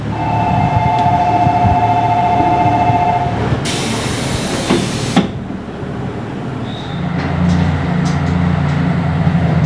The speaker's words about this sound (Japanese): JR 名古屋駅からキハ8号系の特急ひだで出発しました